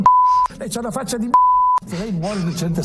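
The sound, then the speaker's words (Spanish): Two loud, steady censorship bleeps, each about half a second long, cut sharply into a vice minister's speech to journalists, hiding insults or foul language; his speech carries on between and after them. “Cada pitido introducido por la raya en las palabras del viceministro esconde un insulto o alguna expresión malsonante.”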